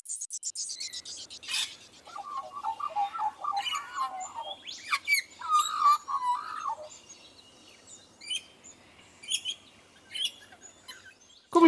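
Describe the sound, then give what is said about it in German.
Australian magpie song, from a black and white bird in Australia: rich, warbling carols with fluting, gurgling phrases and sharp chirps, clear, rising and falling over several seconds with no voices present. “Magpies are a kind of bird right? I in Australia, they're a black and white bird.”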